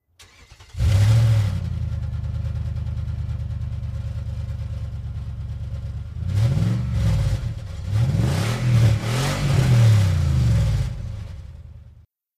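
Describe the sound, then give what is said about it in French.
The V8 Interceptor muscle car engine from George Miller's films roars to life, idles with a deep rumble, then revs hard several times in quick, rising-and-falling bursts. It is loud, and no one speaks. The car sounds were designed by Byron Kennedy. “Parlons un petit peu du V8 Interceptor.”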